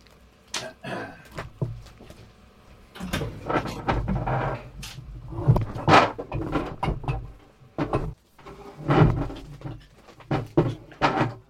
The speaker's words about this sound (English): The sound of man returning to cupboard.